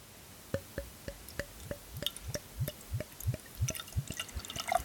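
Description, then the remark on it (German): A chilled, fruity sparkling wine glugs out of a small wine bottle into a glass in steady, rhythmic gulps, about three per second, with a faint fizzy crackle building as the glass fills. No one speaks. “Ich schütte jetzt aber mal ein.”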